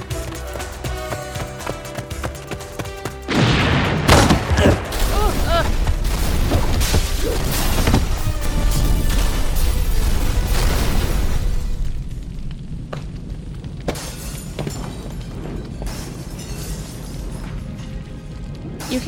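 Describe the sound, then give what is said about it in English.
After a few seconds of tonal ambience, equipment set to auto-destruct on a timer blows the place up: a sudden loud explosion erupts into a long, roaring rumble with sharp crackling bursts, then gradually eases into a lower, continuing rumble. “The, the explosion.”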